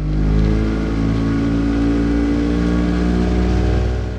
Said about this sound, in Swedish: Under mina Tonårssomrar i skärgården var till exempel ljudet av en vrålande utombordsmotor.